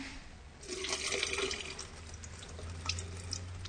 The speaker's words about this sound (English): And now we want to see what happens to the noise when you pour out some of the water. So, do you want to just pour some of that water down the sink then